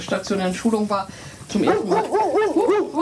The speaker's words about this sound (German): Entschuldigung, das war ein Hund.